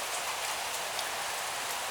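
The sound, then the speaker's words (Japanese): Steady rain falls continuously, a dense hiss of drops pattering on a surface, even and unbroken with no voices. “この後ね、もう雨が降り続けると思いますので、まあそういったゴミもね、全部きれいにさっぱり流れてくれるとは思うんですけど”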